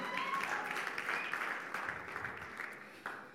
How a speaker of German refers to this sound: Einen Applaus